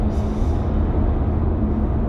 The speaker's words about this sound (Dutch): En wederom, zoals je hoort, in de auto.